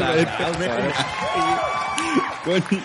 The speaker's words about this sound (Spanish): Bio Bio, la radio presenta El Informador. Un aplauso.